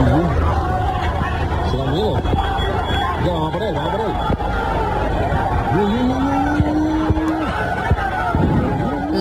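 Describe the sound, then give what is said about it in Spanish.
A street brawl at the Puerta de Carmona in central Seville: a crowd shouts and yells in a continuous commotion. A few sharp knocks and bangs cut through the din as chairs, parasols and tables are thrown. “por la tarde se produjeron varias peleas. La más llamativa que ha inundado las redes sociales en la Puerta de Carmona, en pleno centro, con lanzamiento de sillas, sombrillas y mesas.”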